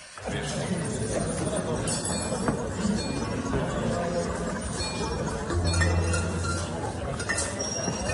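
A dense, continuous collage of fizzing champagne and clinking glass, with occasional sharp pops of champagne corks and vocal hiccup-like sounds layered in, steady and fairly loud throughout. It is a piece by an artist built from fragments of real recorded sounds of champagne bottles being uncorked, the bubbling drink and hiccups.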